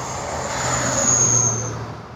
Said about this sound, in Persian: در حال بیرون کشیدن جک بود که یک کامیون 18 چرخ مثل باد از کنارشون رد شد.